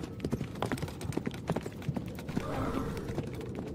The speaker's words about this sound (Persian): اینجا یا بسم الله صدا یورتمه اسبه